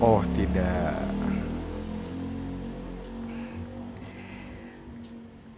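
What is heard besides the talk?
motorcycle passing by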